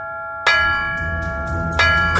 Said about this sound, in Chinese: 于是他就放心大胆的举起锤子，一下又一下的砸在大钟上。巨大的敲钟声很快就把家丁吸引过来了。